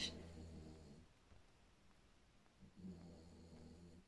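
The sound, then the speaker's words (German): Two soft, low snores from a sleeping animal or person, each a rumbling breath about a second long with a quiet pause between, faint with no talking. “Schnarr. Ich weiß gar nicht, ob man das hört.”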